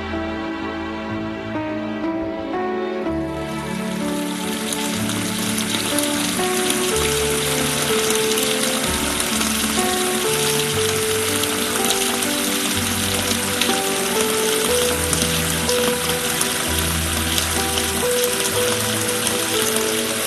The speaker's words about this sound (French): entre chez lui, il prend une bonne douche glacée.